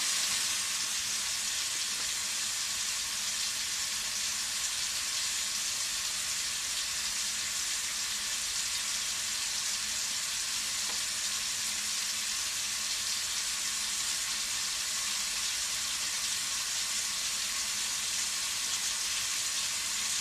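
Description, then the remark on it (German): Steady, continuous rush of running tap water, a dense hiss concentrated in the upper range with no pauses or changes, alone and without any talking, fairly loud throughout. “ihr habt jetzt noch die Möglichkeit, die nächsten paar Minuten Leitungswasser zu hören.”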